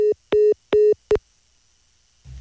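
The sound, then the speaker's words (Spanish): A telephone busy tone after a dropped call: four short, steady beeps pulsing in an even on-off rhythm, loud and clear, then a pause of silence ending in a faint low rumble. “Eh, bueno, tenemos problemas con la llamada”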